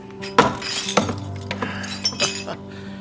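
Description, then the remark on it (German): A ceramic plate breaks with a sharp crash, followed by several scattered clinks and tinkles of shards over about three seconds, moderately loud. “Teller kaputt, das zwei.”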